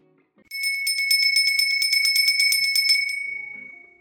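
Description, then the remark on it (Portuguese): A small notification bell sound effect rings in a fast, rattling trill for about two and a half seconds, then its bright tone lingers and fades out. Loud, with no talking over it. “Aproveita, ativa o sininho que você vai sempre receber mensagens dos episódios que estão sendo lançados.”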